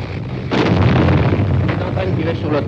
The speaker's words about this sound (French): Vous entendez de temps en temps les huit balles qui tapent.